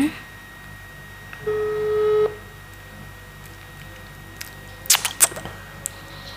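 A single steady telephone tone sounds for under a second over a quiet line, followed a few seconds later by a quick cluster of sharp clicks as a phone call is being connected.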